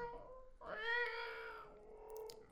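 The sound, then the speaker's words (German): A cat brought to work for 'bring your cat to work day' lets out one long, loud, drawn-out meow with a wavering, plaintive pitch, followed by a quieter trailing whine. No one speaks. “Entschuldige, ich habe ähm, ja, heute ist Bring deine Katze mit zur Arbeit Tag. Ich habe die. Ähm, alles gut, die ja. beruhigt sich gleich wieder.”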